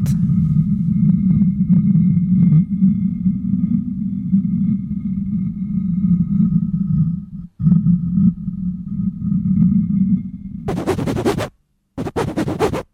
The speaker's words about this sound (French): Frottement sur assiette.